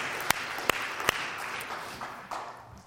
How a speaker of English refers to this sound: So let's give God a clap offering for that.